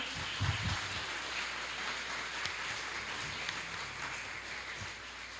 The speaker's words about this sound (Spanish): Cuatro hermanas que hoy bajaron a las aguas del bautismo y vestidas de blanco, siempre blancas para el Señor. Un aplauso para ellas, hermanos, por favor.